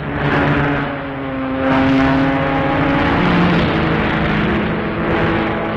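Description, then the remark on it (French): Steady, loud engine drone from racing cars running continuously on a circuit in the early morning of a race watched by 300,000 spectators, with sustained harmonic whines that rise and shift as cars pass, a continuous roar with no voices. “Pendant ce temps, les voitures continuent de rouler sans cesse ou s'arrêtent pour ravitailler.”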